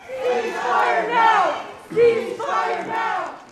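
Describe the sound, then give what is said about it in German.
Activists in the US Senate gallery shout "ceasefire now" together in loud, chanting bursts while Secretary of State Antony Blinken is questioned on the Middle East war, two sustained waves of yelling separated by a brief dip, the cries rising and falling in pitch. “Waffenstillstand jetzt, rufen Aktivisten auf den Zuschauerbänken im US-Senat, während Außenminister Anthony Blinken zum Krieg in Nahost befragt wird.”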